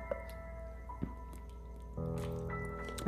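A quiet sip of water: a few small wet clicks and a soft liquid squish over a steady low hum, with no talking.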